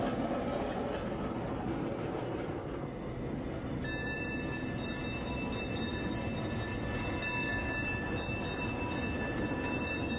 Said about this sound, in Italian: Ora risaliamo sul tram e spostiamoci in un'altra zona centralissima eh, di Milano a vedere un'altra opera.